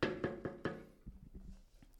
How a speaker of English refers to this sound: All right, I'm going to knock one more time. Okay, didn't pick up. I'm going to knock a third time.